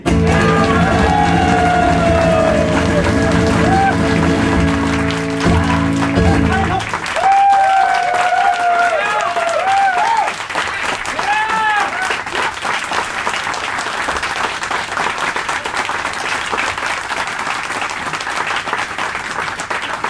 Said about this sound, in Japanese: っていう曲にしたご褒美に素晴らしい拍手をくれよ